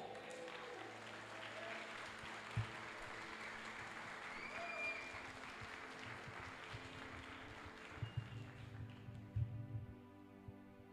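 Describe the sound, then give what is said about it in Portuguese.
Sustained applause from a large audience fills the space, a dense wash of clapping at steady volume with a few louder thumps and bursts near the end as it begins to fade. “Dá um forte aplauso aí por isso.”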